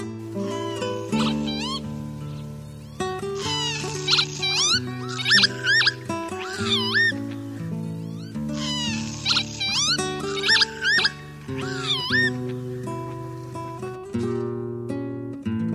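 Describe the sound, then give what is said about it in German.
Northern lapwings call in repeated bursts of wheezy, swooping high cries, rising and falling in pitch, layered over a steady, sustained musical backdrop. “Das war der Kiebitz.”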